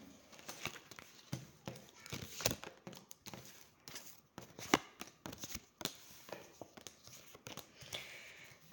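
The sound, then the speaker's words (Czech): Tarot cards being turned over and handled during a card reading: a quick, irregular run of soft flicks, slaps and papery rustles, fairly quiet, with brief pauses between movements and no talking. “Tak už to otáčím.”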